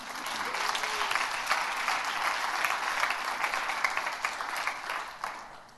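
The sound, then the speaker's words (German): An audience applauds two speakers steadily for several seconds, a dense wash of many hands clapping at an even level, with no voices standing out. “Ihr dürft den beiden mal einen Applaus geben.”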